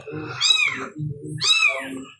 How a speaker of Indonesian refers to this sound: ini ada kucing di sini guys